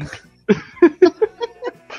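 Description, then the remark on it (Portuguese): A loud run of about six or seven short coughing bursts from a person in quick succession, each a sharp voiced hack, with no talking over them. “Eu ainda não me recuperei não, dos gifs, eu tô. tô, tô eu sou tossindo agora.”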